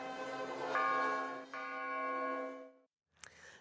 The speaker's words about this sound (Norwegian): Og det var ingen ringere enn landets egen president som sørget for at han var den første som lot klokkene klinge da de var vel hjemme igjen.